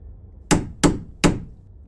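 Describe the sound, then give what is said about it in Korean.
Three firm knocks on a front door from outside at around 3:30 a.m., in quick, slightly uneven succession, each a sharp thud with a short ring, fairly loud against a quiet background with no voices. “그리고 잠에 들려던 그 순간 갑자기 밖에서 현관문을 두드리는 소리가 났다.”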